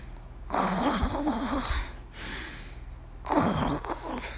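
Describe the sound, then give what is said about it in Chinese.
A voice imitates the Colour Monster snoring with three long, raspy breaths in a steady rhythm, the first and last louder and rougher, the middle one softer, with no words spoken. “天哪！彩色怪兽会打呼，这样我怎么睡得着啊？”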